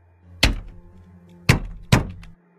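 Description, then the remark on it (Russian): Three solid knocks on a window pane, one on its own and then a pause before two more in quick succession, each with a short hollow ring and a faint hum beneath. “Может, это какие-нибудь детишки гуляют ночью и стучат в окна, чтобы повеселиться?”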